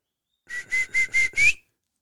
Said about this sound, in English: I don't know what it was, but let's let's hear your whistle nowadays. And now you're learning to belt one out.